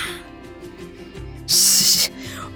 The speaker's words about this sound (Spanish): ¿Oyó un ruido? Yo sí. No estoy seguro, pero creo que se trata del rechinar de la puerta de una cárcel que se abre.